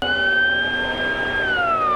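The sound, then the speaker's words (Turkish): A siren of a tracked ambulance carrying a hypertension patient to hospital in Göksun district, Kahramanmaraş, Turkey, wails loudly, holding a steady high tone before its pitch slides downward near the end, with a low rumble of traffic or engine noise underneath. “Kahramanmaraş'ın Göksun ilçesinde ise durumu ağırlaşan hipertansiyon hastası paletli ambulansla hastaneye kaldırıldı.”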